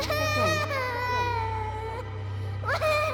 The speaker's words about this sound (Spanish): Pasaron los días y estaba dejando todo esto atrás, hasta que una noche comenzó a escuchar el llanto de una pequeña.